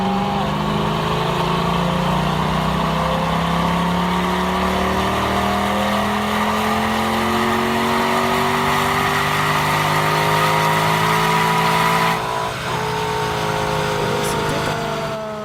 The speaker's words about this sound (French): C'était un V8 atmosphérique qu'on trouvait là-dedans. Attendez, mais là, le son était... Euh, je suis d'accord, le son était pas... était pas X-Pipe Super Sprint.